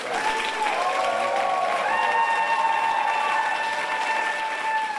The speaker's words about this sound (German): Man darf ja nicht vergessen, dass sie da unter dem Jubel ihrer ganzen Unterstützer und Unterstützerinnen in den Saal geführt wurde.